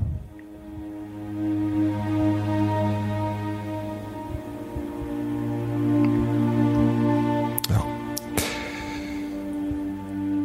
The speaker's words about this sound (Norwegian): Nå skal vi høre på litt spa-musikk igjen.